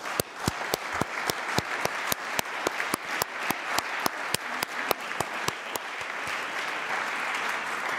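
An assembly audience applauds the German secretariat warmly, a steady wash of clapping with a strong, even rhythmic beat running through it for several seconds before settling into looser, continuous applause.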